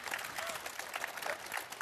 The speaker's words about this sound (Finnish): voisiko kaikki laittaa tuota pelaajalle isot kädet. Ne, jotka taputtaa kovin, voi saada jotain palkintoja